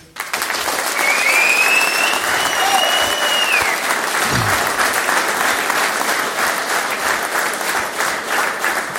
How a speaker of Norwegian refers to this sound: Så jeg syns rett og slett vi skal starte med å gi dem en skikkelig god applaus for en vellykket første dag.